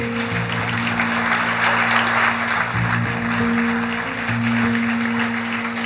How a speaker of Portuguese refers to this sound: Aplauda Jesus bem forte por isso.